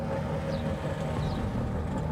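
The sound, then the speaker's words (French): A car carrying farm workers on their way to work hums steadily, a continuous low rumble that neither rises nor fades, with faint high chirps flickering briefly above it. “Les caporales qui sont en train d'aller travailler, ils ont les travailleurs dans la voiture.”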